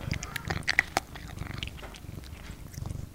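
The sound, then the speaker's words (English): A female kitten, not yet a year old, makes a couple of short, high chirping mews amid soft rustling and low rumbling handling noise, with no one talking. “It's my cat Raven. She's still a kitten yet, not even a year old.”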